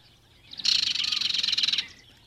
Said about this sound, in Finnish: Kirjokerton laulu muistuttaa hieman lehtokerton laulua, mutta se on lähes aina kovempi, terävämpi ja lyhyempi